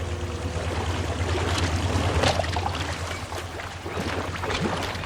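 A boat with its motor switched off drifts the last few metres on gentle water toward a wooden jetty, small waves lapping and splashing against the hull in a steady wash, with a low rumble underneath and no voices.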